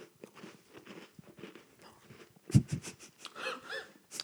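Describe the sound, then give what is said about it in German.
Crunchy chewing of a crumbly cookie, with a sharp loud bite in the middle followed by several moist crunching chews and audible breathing through the nose. “Und jetzt muss ich den aufessen, weil sonst liegt dieser krümelnde Keks auf meinem Computer.”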